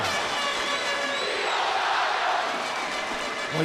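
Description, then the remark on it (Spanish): A huge crowd of about 15,000 people shouting "tío Sabio" together in a steady, dense roar, loud and sustained throughout with overlapping voices blending into one continuous wall of sound. “no, oye eso, sobre 15 mil personas gritando tío Sabio.”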